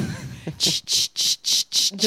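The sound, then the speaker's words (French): Cicadas buzz in loud, regular pulses outdoors in Marseille, about five harsh high-pitched bursts separated by brief gaps, with faint murmuring voices at the very start. “Vous entendez les cigales On est à Marseille, on est bien.”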